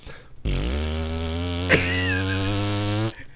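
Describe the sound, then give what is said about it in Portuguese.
A voice imitates a speedboat motor with a steady, buzzing hum held for about two and a half seconds, as a trick of making a vibrator sound with the mouth. It is loud, with a brief sharp click partway through. “É o motorzinho de lancha.”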